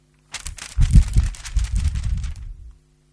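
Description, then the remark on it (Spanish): A blank white sheet of paper is crumpled up in a continuous burst of crinkling and crackling lasting about two seconds, loud and dense at first, then softening before stopping. No one speaks. “pues resulta que mi vida puede parecer delante de los demás aparentemente pura, como es esta hoja blanca, pero cada uno sabe y el Señor sabe que dentro de esta vida, de esta hoja, hay mucho ruido.”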